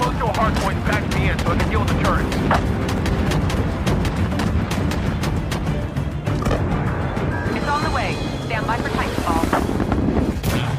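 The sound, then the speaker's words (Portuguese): A loud, dense video game battle between giant robots: rapid bursts of heavy gunfire and booming impacts pound almost nonstop, with snatches of voices buried under the din. “Os caras desenham o som, tudo é perfeito pra te dar uma sensação de que você tá entrando Sim. num robô gigante.”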